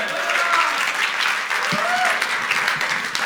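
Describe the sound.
Sustained audience applause encouraging an audience member coming up onto the stage, a dense, steady wash of many hands clapping at an even loudness for a few seconds, with a faint voice briefly audible underneath.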